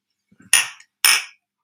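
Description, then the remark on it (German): Glasses of drinks, one with lime, clink together twice in a toast, two bright, ringing knocks about half a second apart, each fading quickly, preceded by a few soft low bumps and no talking. “So, Prost, Leute. Prost.”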